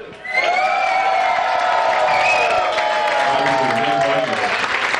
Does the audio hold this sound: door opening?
no